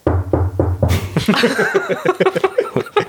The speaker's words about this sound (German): Schnell auf Holz klopfen.